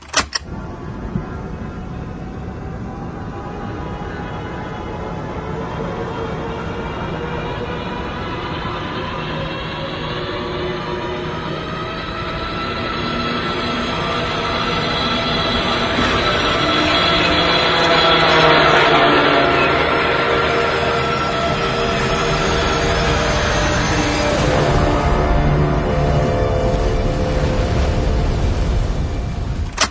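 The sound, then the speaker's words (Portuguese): A loud, steady airplane engine roar with whining tones swells toward a peak midway as the airplane passes the camera still in the air, breaking apart, then continues with heavy low rumbling as it goes down to crash far off; no voices. “Agora olha a cena depois dessa intervenção, quando o avião passa pela câmera ainda no ar, quebrando fudido e ele vai bater lá longe.”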